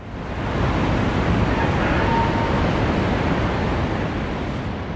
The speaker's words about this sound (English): Torrents of water are cascading downstream, and at least eight different towns and villages have already been submerged by the rising tide.